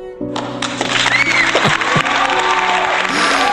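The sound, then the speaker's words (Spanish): A loud, dense wash of audience applause and crowd noise starts almost at once and continues steadily, with a sustained low musical tone or chord beneath it. “Como siempre, el aplauso cálido, el aplauso receptivo es 100% para ustedes.”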